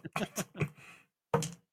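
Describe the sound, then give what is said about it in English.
A quick cluster of sharp clicks and clatters as dice tumble across a hard surface, rolled for an athletics check in a tabletop game, followed by a short pause and one final rattle, fairly quiet; the roll comes up a natural one. “That's a nat one.”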